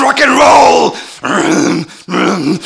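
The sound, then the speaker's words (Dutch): A voice growls the words "Lay down your soul to the gods" in a harsh, raspy black-metal style, imitating extreme metal singing in three strained bursts separated by short pauses, loud. “Oh, black metal.”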